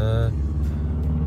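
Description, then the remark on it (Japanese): A truck drives past in a parking lot, a low droning engine roar that holds steady through the moment, with a brief higher tonal whine fading out near the start. “おおおおすごいねトラックが今走っていきましたねはい今 駐車場ですからねはい失礼しましたはい”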